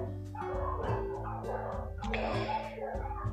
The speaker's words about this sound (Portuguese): Não sei como é que vai ser essa gravação, temos cachorro fazendo trilha sonora, mas daremos o nosso melhor.